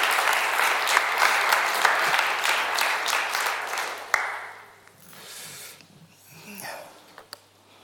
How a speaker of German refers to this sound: Äh ja, wir könnten Ihnen vielleicht gleich auch noch einen Applaus geben. Einfach. Wegen Merci.